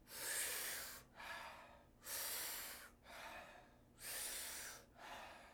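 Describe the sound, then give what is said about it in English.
Strong, rhythmic breathing through the mouth in a breathing exercise of 40 powerful breaths done together: three forceful inhales alternate with softer, gentler exhales, clear with no talking, each cycle lasting about two seconds. “And what we're going to do is take 40 powerful breaths into the body through the mouth.”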